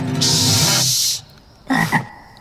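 A frog croaks: one long, loud, buzzing call, then a brief pause and a second, shorter croak. No voices are heard.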